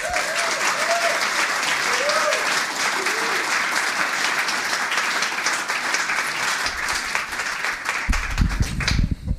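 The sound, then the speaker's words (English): An audience breaks into sustained, dense applause welcoming an author to the stage at a book tour stop, holding steady for about nine seconds, with a few brief cheers rising early on and a low thump at the end. “Um, please join me in welcoming to the stage”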